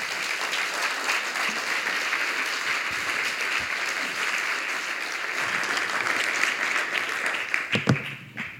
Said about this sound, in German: Gerne Applaus.